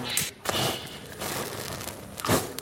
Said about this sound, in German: Das ätherische Öl verpufft in einer Stichflamme.